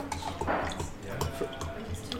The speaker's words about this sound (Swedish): Fyller på glasen och... det är bara jag som dricker.